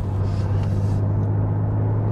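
The engine of a BMW M3 Touring sports estate car runs steadily with a deep, continuous low hum and a rumbling drone, with no talking, its brighter upper noise easing off after the first second.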